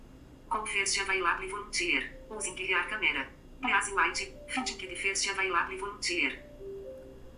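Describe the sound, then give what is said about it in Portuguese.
A bright electronic app tone plays a short looping melody, repeating its chiming phrase about twice at steady volume, like a ringing call signal, with no talking over it, as the app tries to find volunteers. “Esse som indica que ele está tentando achar voluntários.”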